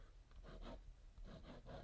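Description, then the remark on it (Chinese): Scratchy strokes of a thick pen on paper, a few short rasping bursts in uneven rhythm, soft and dry, with no voices. “然后我找一支比较粗的笔”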